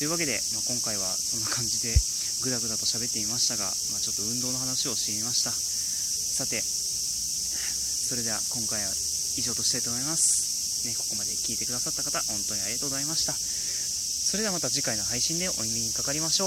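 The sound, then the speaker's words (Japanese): A steady, high-pitched cicada drone fills the background throughout, unbroken and fairly loud, at the height of summer, while a man talks continuously over it. “夏真っ盛りになってきてセミの声が、ね、めちゃくちゃ配信に入るようになってきた”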